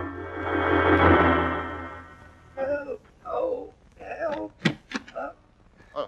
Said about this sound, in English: Well, I found the carriage in front of the museum right enough, and when I opened the door to look inside, I heard a moaning and groaning.